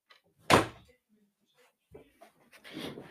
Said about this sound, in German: Jetzt mache ich mal die Tür zu. Kann man nicht mal die Tür zumachen?